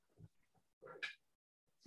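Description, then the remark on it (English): A puppy makes a few short, excitable yips and whiny noises in quick bursts, with brief quiet gaps between them and no one talking. “My puppy's being a little extra right now.”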